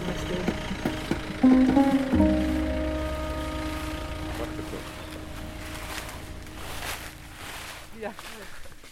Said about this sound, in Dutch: We zijn zojuist uit de legertruck gestapt en nu zetten we onze eerste stappen in Bardia National Park. Er liggen overal grote bladeren op de grond, zoals je kunt horen.